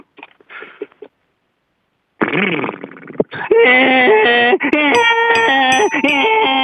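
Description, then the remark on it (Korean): After a brief spoken word and a pause, a person loudly imitates a person riding a motorcycle hard, a buzzing vocal engine roar that revs, climbs and shifts pitch in steps for several seconds. “…가 오토바이를 격하게 타는 소리 한번 들어볼게요.”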